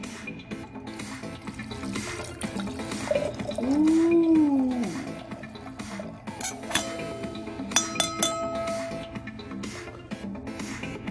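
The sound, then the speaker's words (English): Wine is poured into a glass, a gurgling pour whose pitch bends up and then down, followed by a few light glassy clinks and taps. The sounds are moderately loud, with no talking. “So, this is my first time drinking this wine, ladies and gents. So, let me pour me a nice glass of.”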